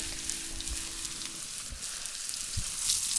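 Butter and oil sizzle steadily in a pan over a campfire as morel mushrooms are fried, a dense crackling hiss with scattered sharp pops and a few low thumps, moderately loud, with no one speaking.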